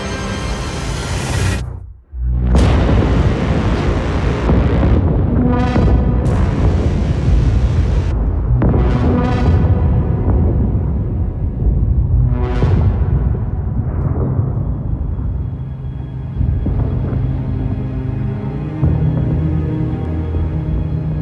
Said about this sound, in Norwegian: Du har helt sikkert hørt om The Big Bang, eller det store smellet før. Det er altså det vi kaller universets fødselsøyeblikk.